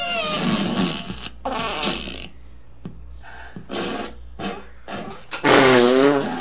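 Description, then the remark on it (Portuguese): A rapid series of loud, buzzy fart sounds, about eight bursts of varying length, some tonal and drawn out, ending with a long, wobbling fart; a fart-sound version of a song being played. “Tanta gente peidando, porra.”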